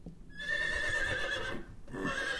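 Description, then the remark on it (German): A horse whinnies loudly, a sustained, wavering neigh lasting about two seconds with a brief dip before a final rising burst, played as a sound effect by pressing a button on a mixing desk. “mein Pferd, das klingt zum Beispiel so und drückst dann da drauf.”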